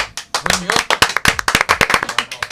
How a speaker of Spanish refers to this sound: Bien. Aplauso, aplauso